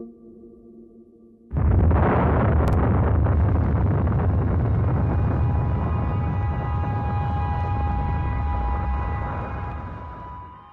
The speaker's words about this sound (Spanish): Había más calor, más potencia y se produjo una reacción descontrolada. En ese momento no se puede hacer nada. El reactor de la unidad 4 explota.